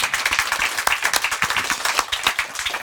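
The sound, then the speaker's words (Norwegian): An audience at a poetry reading claps steadily between poems for about three seconds, a dense patter of many hands, even in loudness, with no voices over it. “Det er, det er lov å klappe lov å mellom klappe.”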